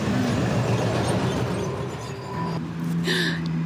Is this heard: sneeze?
no